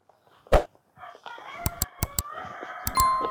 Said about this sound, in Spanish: Oye, ese gallo se quedó dormido. ¿eh? ¿A qué horas canta el gallo más o menos? ¿Eh? Cinco o seis, ¿no?